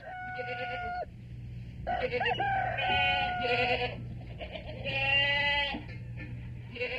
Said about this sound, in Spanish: A poco de ocurrir esto, algunos animales comenzaron a murmurar, pero en vano.